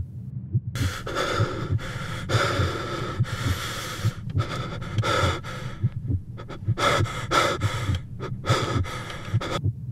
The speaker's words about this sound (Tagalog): Rinig na rinig ko ang tunog ng pagod kong paghinga.